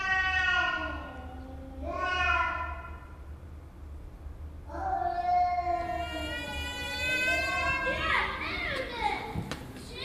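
A cat in a stairwell in Istanbul meows repeatedly, four long, wavering cries separated by short pauses, the later ones drawn out and insistent, over a steady low background hum.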